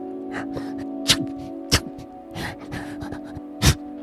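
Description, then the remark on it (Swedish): Short, breathy huffs and sharp sneeze-like bursts from a hedgehog, several in an irregular sequence, fairly soft, over a steady low hum. “utstöter de vanligtvis svaga läten som liknar flåsanden och nysningar.”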